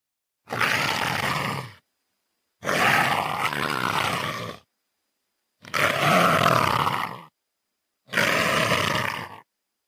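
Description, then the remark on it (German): A leopard hisses and snarls four times in harsh, raspy bursts, each lasting a second or two with brief silences between them, loud with no voices present. “Es ist das Fauchen eines Leoparden.”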